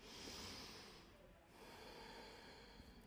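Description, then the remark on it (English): A deep breath drawn in slowly, a brief pause, then a long airy exhale, fairly soft, with no talking. “Deep breaths.”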